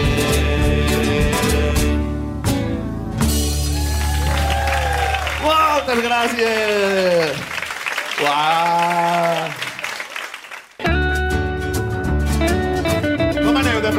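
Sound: audience applause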